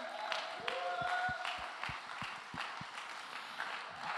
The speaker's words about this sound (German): Hey Technik, ihr macht das richtig gut. Lass dir mal bitte einen Applaus geben.